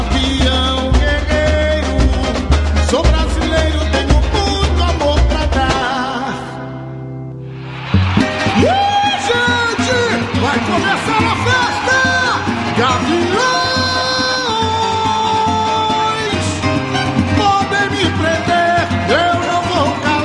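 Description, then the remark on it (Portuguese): A loud, dense samba-enredo recording from the 2004 Carnival, played by a DJ, with driving percussion and layered sung melody fills the whole stretch, briefly thinning into a short swelling break before the full band crashes back in. “Vamos relembrar, é um sambaço. Aumenta o som aí em casa, hein?”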